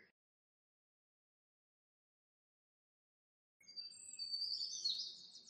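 After a long silence, monkeys burst into shrill, chirping calls from the trees, a dense overlapping chatter of high-pitched squeaks lasting about two seconds, clear, with no talking.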